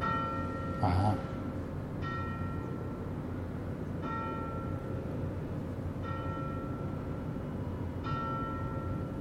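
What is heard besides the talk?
church bells ringing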